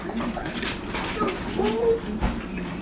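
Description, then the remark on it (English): A dog whimpers softly, letting out a few thin, high, wavering whines that slide up and down over a steady background hiss. “That's my dog. Don't worry about it.”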